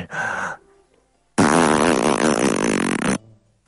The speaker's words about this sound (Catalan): A tu se t'ha escapat un pet però jo et perdono perquè ja fa estona que m'he cagat a sobre.